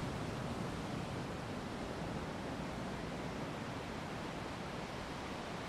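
A steady, soft wash of ocean surf and wind around an island hisses continuously throughout, with no distinct wave crashes standing out and no voices present.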